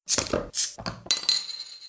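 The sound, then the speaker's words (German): Several bright glassy clinks in quick succession, fairly loud, the last strikes leaving a high ringing tone that fades out, like glasses touching in a toast. “Wir müssen noch ein Momentchen warten, bis wir hier anstoßen können an.”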